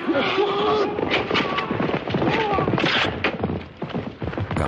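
Horses gallop toward an open clearing where there are two riders, in a fast, steady drumming of hoofbeats amid a dense, noisy commotion, with voices calling out over the rumble for the whole stretch.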